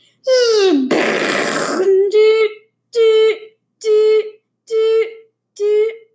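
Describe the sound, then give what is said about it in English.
A child's voice imitates a missile hitting: a rising vocal whoosh, a harsh noisy explosion blast, then five evenly spaced wailing siren calls, loud. “There would be an explosion and then sirens.”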